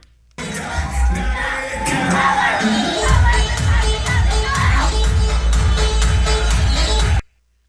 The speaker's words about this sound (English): It's very loud music. Keep in mind, they're outside. The music's pumping, but you can hear her.